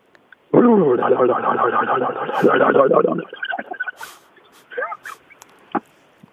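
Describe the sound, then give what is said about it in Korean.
A person mimics a legally tuned motorcycle engine with a loud, buzzing vocal drone lasting about three seconds, followed by scattered short vocal sounds and laughter. “아 이게 좀 튜닝이 된 오토바이인데요.”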